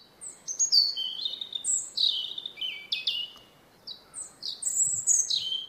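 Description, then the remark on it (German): A European robin sings: a flowing run of high, thin, warbling phrases with brief pauses, varied and liquid, over soft background hiss with no voices. “Dann ein bisschen später kommt dann das Rotkehlchen an die Reihe.”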